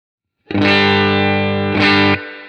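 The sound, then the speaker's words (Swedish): A buzzy, harmonically rich sustained tone from a clipping distortion effect in this clipping mode with its control set to zero plays alone for about two seconds, with a brief re-attack midway before it cuts off into a faint fading tail. “Men om vi, nu, den här mode av klippningen, mm. om jag mm. börjar på noll på den, då låter det så här.”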